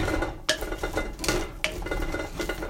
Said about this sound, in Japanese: ご飯を一回ね、しゃもじでこう混ぜてます。まあ、混ぜることによってですねこのご飯が土鍋にこびりつくのを防げ防ぐ役割がありまして